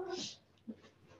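A pet cat lets out a single short, raspy vocalization at the very start, fairly quiet, then only faint background noise and a small soft sound follow.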